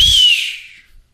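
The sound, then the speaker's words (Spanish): A voice imitates a whistling firework (a chiflador) with one high, shrill whistle that starts loud, glides slightly downward and fades away within about a second. “Son los chifladores”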